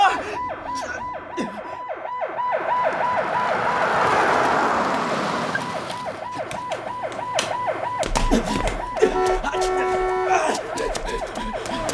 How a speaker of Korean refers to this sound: 이 구급차 얼른 세워요. 안 그러면 뛰어내릴 겁니다.